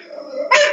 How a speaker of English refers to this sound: I'm sorry about the dog.